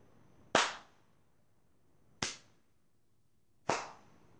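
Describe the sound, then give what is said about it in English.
A man claps three loud, sharp hand claps that ring out slowly, spaced about a second and a half apart, each with a brief ringing tail, and no one speaks. “A man claps as Magman thinks.”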